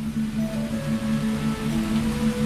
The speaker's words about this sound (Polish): Dobra. Mam w ogóle cały czas dźwięk deszczu, jak widać.